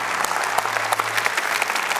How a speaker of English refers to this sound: And when I clap, it's like God's possibility is coming into my impossibility. So let's clap one more time for the glory of God.